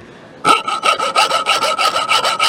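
A hacksaw cuts through metal in quick, even back-and-forth strokes, about a dozen in a row, fairly loud with a faint metallic ring and no voices.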